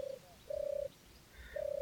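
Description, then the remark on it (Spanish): Pigeons coo in low, hollow, drawn-out notes, three of them with short pauses between. The calls are steady, with a faint background hum and no talking. “Bueno, y si las palomas nos permiten, vamos a traer a los directores de orquesta para que nos deleiten con una pieza musical.”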